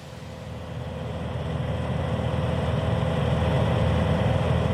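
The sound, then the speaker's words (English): A small airplane engine drones steadily, a dense low rumble that swells slightly louder over a few seconds, with no voices, as a volunteer pilot with the conservation group South Wings flies from Charleston, the state capital, over forested hills toward mining country. “We fly from Charleston, the state capital, over forested hills like ocean waves.”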